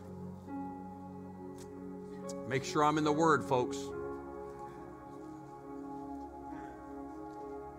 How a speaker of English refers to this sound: I hear pages turning, I'll wait.